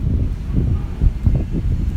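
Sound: strong wind blowing outdoors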